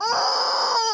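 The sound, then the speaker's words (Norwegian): A loud, strained squawk from a squeezed Squeeze me chicken rubber toy, one continuous shrill honk held for about a second, alone with no talking. “Oh, yes, det er intenst. en Squeeze me chicken.”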